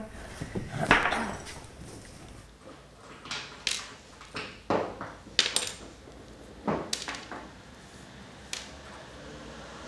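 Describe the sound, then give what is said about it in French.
Hard ceramic sherds clink and clatter together as they are handled, a series of bright, irregular taps and chinks, with no talking. “Ça fait cling cling, alors que là-bas c'est pof pof.”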